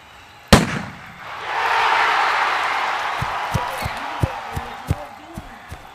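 A single sharp starting-gun crack rings out, then a broad crowd roar swells up and holds, with scattered short thumps and pops punctuating it.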